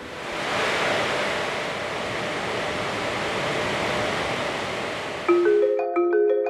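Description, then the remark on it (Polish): Graphics cards in a cryptocurrency mining rig, started by shorting the motherboard contacts with a metal screwdriver, roar with a loud, steady fan whoosh for about five seconds, then the rush cuts out and a few bright electronic tones ring. “Mam tutaj ze sobą śrubokręcik metalowy i z jego pomocą właśnie e, za chwilkę tutaj uruchomimy i będzie od razu pewnie słychać no, dźwięk, z którym pracują e, te karty.”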